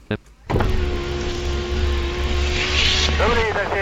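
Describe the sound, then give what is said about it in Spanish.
An aircraft parked at a stand to refuel: its engines give a steady, loud roar with a whining hum that kicks in after a short pause, then near the end the whine slides downward in pitch as the engines are shut down. “Bien, apagamos motores con avance y retroceso de página, la misma combinación que utilizamos para encenderlos.”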